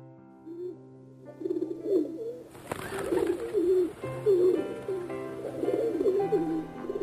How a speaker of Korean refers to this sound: 나는 학교 지붕 위에서 꾸르르꾸르르 우는 비둘기들의 울음소리를 들으면서 생각했다. 저 비둘기들도 머지않아 독일어로 울게 되지 않을까?